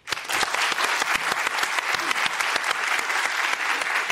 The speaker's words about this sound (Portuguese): aplaudam, por favor, o nosso colunista de ciência aqui presente, o neurocientista